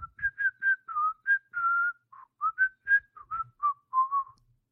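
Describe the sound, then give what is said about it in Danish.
A person whistles a quick, chirpy run of birdlike notes, about fifteen short, high tones rising and falling in a lively, uneven rhythm, imitating birdsong with no talking. “Jeg, afsiger, jeg afgiver jo bare deres... Øh, deres sang eller deres, deres tuden.”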